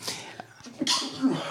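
A single sharp sneeze bursts out, a quick breathy intake followed by a hissing, forceful exhale, with some faint rustling and murmuring around it.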